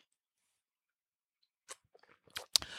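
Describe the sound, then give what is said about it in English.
After a stretch of quiet, a few mouth sounds of someone sipping a freshly brewed hot drink: short wet slurps and clicks, building into a brief, noisy slurp at the end. “I'm going to pause right there and take a sip of this. Mm, I just brewed this.”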